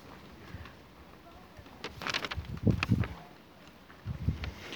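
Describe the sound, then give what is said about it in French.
Wind stirs the leaves of the trees overhead in a soft, steady rustle outdoors on the way to a fortress, swelling into a couple of louder gusts midway and again near the end before settling back. “Sous les arbres, le bruit du vent nous accompagne vers la découverte de la forteresse.”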